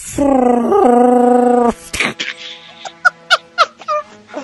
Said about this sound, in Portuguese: o som do Godzilla, mano. Isso é o Shellbaca Godzilla, não? o Shellbaca Godzilla, tá mais pra isso.